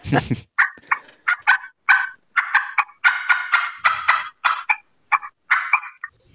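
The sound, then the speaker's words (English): An old aluminum turkey call is played loudly in a rapid series of sharp, raspy yelps and clucks, about a dozen or more bursts in an uneven rhythm, with a brief thump at the start. “this call's getting pretty old, but see how loud that is?”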